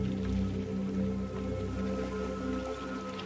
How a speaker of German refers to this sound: Oder das Wasser plätschern?